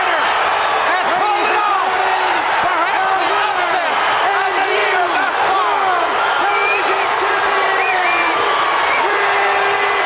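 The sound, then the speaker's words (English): A large wrestling arena crowd roars and cheers wildly and without pause as Steiner wins the TV title by pinfall, a dense wall of shouts, whoops and voices, loud and sustained throughout. “That crowd went nuts when he won, Harper.”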